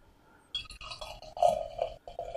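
A drink distributed by Karlsberg is poured into a glass, a ringing, gurgling stream that starts, briefly pauses a couple of times, then continues, with no one talking.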